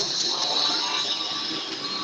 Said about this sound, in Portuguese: Eita, agora eu ouvi. Essa furadeira agora ela. Ah, essa furadeira hoje ela está participando da nossa peça aqui.